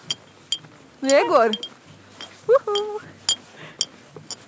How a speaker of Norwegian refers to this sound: Hva slags lyd er dette? Det er lyden av en bronsemedalje mot en skiførmedalje.